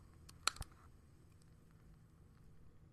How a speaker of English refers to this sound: So let's just get the vibe here. Hope you guys can hear this beautiful. There's like a little wicker sizzling.